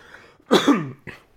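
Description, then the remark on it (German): A single loud sneeze, with a sharp noisy burst and a voiced falling tail, then a short breathy follow-up, with no talking around it. “Gesundheit.”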